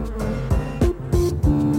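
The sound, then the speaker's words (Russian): A steady buzzing drone of bees as a shirtless man climbs a tree, with the pitch wavering slightly and a few soft low thumps breaking in at regular intervals; no one speaks. “Раздеться герою пришлось в целях безопасности, ведь пчел может разозлить запах синтетики.”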